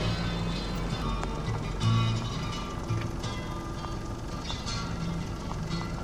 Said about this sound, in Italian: grandi mandri di cammelli all'entrata del paese. Anche l'odore non è male, ma sono più le capre che ci sono vicino che i cammelli che puzzano.